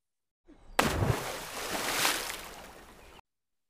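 A sudden heavy splash as a bucketful of water is dumped out onto fighting cats, hitting with a loud burst and then sloshing and spattering for a couple of seconds before cutting off.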